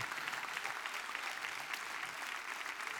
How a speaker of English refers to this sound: I'm going to make everybody clap for that because it's a point.